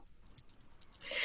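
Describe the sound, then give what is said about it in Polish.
Two small bells on a doll jingle faintly in a quick series of light, high tinkles, ending in a brief sustained shimmer. No one speaks. “I w końcu ostatnim to było, powiesiłam jej te takie dzwonki dwa, może słyszycie, słyszycie jak dzwonią?”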